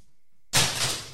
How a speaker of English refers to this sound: Sorry for that. That's um, that's my dog snoring.